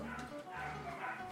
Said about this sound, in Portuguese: calma aí, que tem uns cachorros latindo aqui